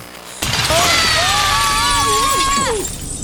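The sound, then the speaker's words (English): A sudden loud crash of window glass shattering as someone breaks in through a window in the audio drama The Rez, after a quiet moment, with bright tinkling debris continuing for a couple of seconds while high gliding cries rise over it. “You're already smashing into buildings. By breaking in the window, you're contravening Judicious Engineering Code 643B and you're letting in a draft.”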